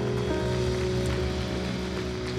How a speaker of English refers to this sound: Let's clap our hands.